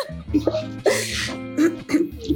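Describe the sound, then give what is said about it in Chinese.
A harsh, loud cough bursts out, followed by a few shorter, rougher coughs in uneven succession, with voiced sounds running underneath. “想想你们的免疫系统在打扫战场，所以你们就在咳嗽。”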